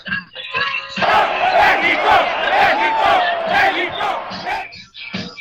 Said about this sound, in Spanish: nada más puse en YouTube Estadio Azteca, afición México USA